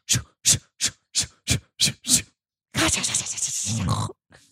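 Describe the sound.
A voice imitates a pig with seven quick, evenly spaced grunts in a steady rhythm, fairly loud, followed by a longer, rougher burst of noisy vocalizing.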